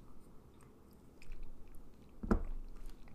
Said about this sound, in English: Um, so I'm gonna take a drink of water, just you know, palate cleanse.